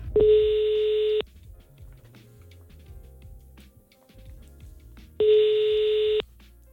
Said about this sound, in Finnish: Soitetaanko tälle äijälle? Soita sille. Toivotaan, että se vastasi.